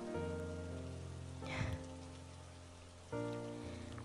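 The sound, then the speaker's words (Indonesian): Steady midday rain patters continuously across a surface, with no voices, while sustained musical tones hum underneath and shift to a new chord near the end. “Sayangnya, siang ini hujan.”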